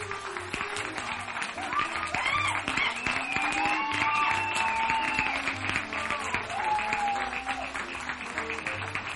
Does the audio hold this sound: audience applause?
yes